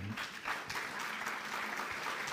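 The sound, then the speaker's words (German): Scattered, hesitant applause from an audience, a loose patter of claps that stays fairly even and modest for a couple of seconds without building into a full ovation. “zögerlicher Applaus, ich weiß.”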